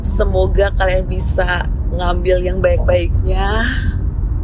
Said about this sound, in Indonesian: mohon maaf kalau suaranya mungkin agak terganggu sama noise dari jalan atau mesin mobil.